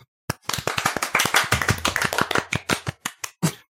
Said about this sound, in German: Einmal Applaus für vier Eier, bitte.